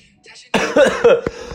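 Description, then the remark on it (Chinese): A short fit of harsh, raspy coughing from a presenter who is ill, several rough bursts in quick succession, loud and alone after a faint intake of breath. “好，最后送个咳嗽给大家。”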